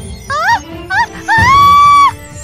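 A woman screams loudly at close range: two short, high-pitched cries followed by one long, sustained shriek, over a low rumbling background.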